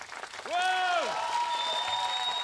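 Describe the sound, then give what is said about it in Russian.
An audience, urged by the host to clap louder, applauds steadily and loudly, a dense wash of clapping throughout, with a rising-and-falling vocal whoop cutting through early on and a thin sustained tone lingering afterward. “Это хорошо, а еще чуть-чуть погромче.”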